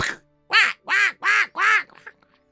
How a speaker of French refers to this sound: puis un corbeau qui s'envole.